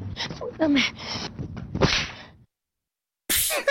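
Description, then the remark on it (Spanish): A voice imitates a slap with the mouth as a sound effect: a string of sharp, breathy smacking bursts, a moment of silence, then one more forceful whip-like crack at the end. “esa bofetazo fue. Eso fue con la boca.”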